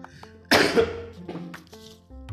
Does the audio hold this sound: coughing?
yes